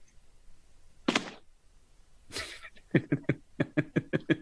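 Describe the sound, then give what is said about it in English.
A person tumbles out of a chair: a sharp thump, then a scraping, rustling clatter, followed by a run of loud, rhythmic laughter. “just fell out of his chair.”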